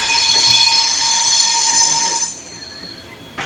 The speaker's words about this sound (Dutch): Het ziet er allemaal heel benepen en benauwd uit, ze kunnen de locomotief bijna aanraken, maar Cambodjanen lijken het een eer te vinden dat de trein door hun slaapkamer dendert.